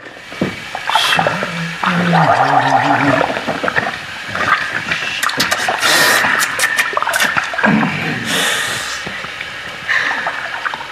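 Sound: gargling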